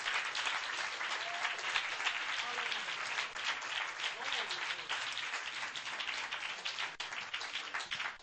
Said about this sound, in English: Put your Bibles down and just before you're seated, give the Lord another hand clap of praise. Mightily, mightily clap your hands unto the Lord. Amen.